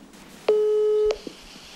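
A single steady electronic beep from a telephone ringing tone on an outgoing call to a Swedish researcher sounds for about half a second over a faint background, then a couple of soft clicks follow. No one speaks.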